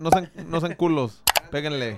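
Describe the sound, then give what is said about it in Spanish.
A quick double-click 'like' notification effect that sounds each time a viewer likes the video, sharp and shutter-like, sounds once in the middle while people talk before and after it. “Cada que dan like va a sonar.”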